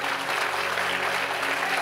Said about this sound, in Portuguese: Você está de pé aqui nessa manhã, então vamos celebrar. Você pode aplaudir a Ele em nome de Jesus. Ei, você está vivendo milagres, celebra Ele.